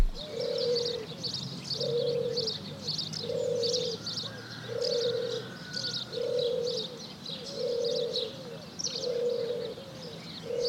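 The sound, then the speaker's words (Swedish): A hybrid dove coos steadily, repeating a soft, low two-part call about every one and a half seconds, with higher-pitched birds chirping continuously in the background. “Eh, nej, men det här var ju en hybrid.”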